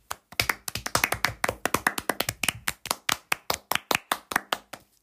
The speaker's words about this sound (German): Ne, klatsch leise im Hintergrund bitte weiter.